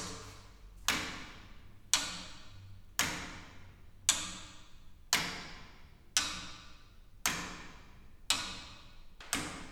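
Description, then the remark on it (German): Steady ticking of a pendulum clock's anchor escapement, with the anchor catching the teeth of the escape wheel. About one sharp tick per second, each click clear with a brief ringing decay, heard alone without voices. “Und das sind dann, das ist dann das System, was man auch in den meisten großen Pendeluhren findet.”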